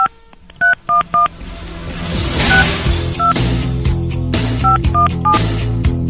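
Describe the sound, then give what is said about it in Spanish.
Telephone keypad tones beep in quick, evenly spaced pairs as a phone number is dialed, a burst of dialing near the start, then more scattered beeps continuing over a dense background of music or noise. “Vamos a marcarle, compadre.”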